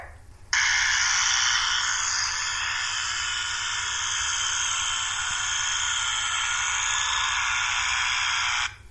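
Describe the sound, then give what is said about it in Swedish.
An electric toothbrush, played as one of two sounds in a guess-the-sound quiz, buzzes steadily for about eight seconds, a loud, harsh, high whirring hum that starts and stops abruptly, easing slightly in intensity after the first second or two. No voices. “Och det ena ljudet är en rak apparat och det andra är en elektrisk tandborste.”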